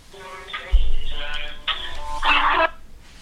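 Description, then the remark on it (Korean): A phone ringing tone plays alone as a call is placed on a new 'super goguma' phone: a bright electronic melody in three short sustained notes, loud, ending abruptly with a brief quiet tail. “그러면 전화 해볼게요. 네, 슈퍼 고구마 폰으로 지금부터 연결을 한번 해보겠습니다.”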